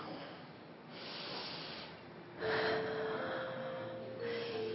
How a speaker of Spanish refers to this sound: Por favor, cierren sus ojos y tomen una respiración profunda.